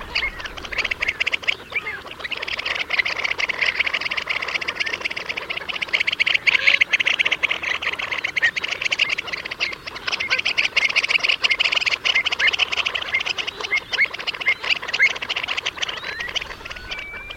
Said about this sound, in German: Und dann eben diesen seltsam nach oben gekrümmten Schnabel und auch lustige Geräusche dazu natürlich, wie sich das gehört für Wartvögel.